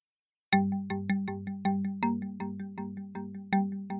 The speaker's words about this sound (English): at about 9:35 p.m. and my phone rings.